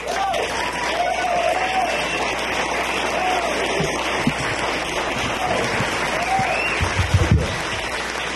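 A crowd applauds steadily throughout as a musician is introduced, a dense, sustained patter of clapping with a few whoops and shouts rising above it near the middle and end.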